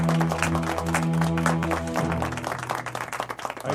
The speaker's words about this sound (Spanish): Aplauso ahí para Carmelito.